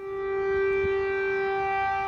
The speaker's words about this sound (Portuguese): Kiev, capital da Ucrânia, uma cidade vazia que tem o silêncio interrompido pelas sirenes.